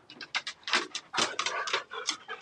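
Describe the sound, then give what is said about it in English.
Husky dogs panting, a quick uneven series of breathy huffs and rasps, fairly loud, with no one talking over it. “What kind of dogs do you have? Uh, huskies.”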